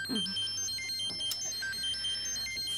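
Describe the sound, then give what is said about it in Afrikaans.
A mobile phone ringtone plays a bright, stepping electronic melody of high beeping tones, steady, with a low background hum underneath and no one speaking. “Moet my selfoon wegpak.”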